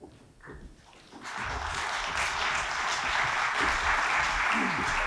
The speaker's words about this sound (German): Applaus